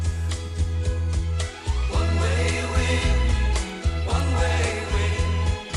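A 1970s pop song plays at steady, full volume, with a pulsing bass line and layered melodic instruments carrying an upbeat tune throughout.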